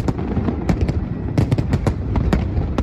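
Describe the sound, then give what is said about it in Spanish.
A dense barrage of Fourth of July Independence Day fireworks in the United States bursting, with many sharp pops and bangs arriving in rapid, irregular succession over a continuous rumbling background, fairly loud and sustained throughout. “Si los extraterrestres y Will Smith lo permiten, cohetes, barbacoas, disfraces en algunas zonas del país, lo hemos visto mil veces en las películas.”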